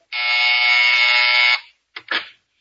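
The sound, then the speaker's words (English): A doorbell buzzer gives one long, loud, harsh and steady buzz lasting about a second and a half, then stops, followed by a couple of brief, quieter sounds. “oh, see who's at the door, will you, dear?”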